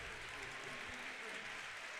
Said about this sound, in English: Houchel up, getting a nice round of applause from everyone in attendance.